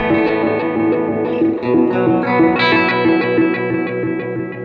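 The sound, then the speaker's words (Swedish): A guitar run through an effects pedal set to arpeggio mode, its notes stepping in a quick, regular pattern with a processed, slightly distorted, reverberant tone, playing continuously and loud with no talking. “Då får du här apeggio stilen”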